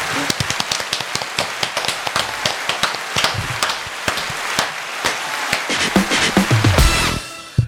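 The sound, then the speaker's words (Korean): Sharp, dense clapping from several people for National Korean Day, steady and fairly loud for about seven seconds, building slightly before stopping abruptly. No one speaks. “자, 해피 내셔널 코리안 데이를 어, 위해서 박수 한번 치죠.”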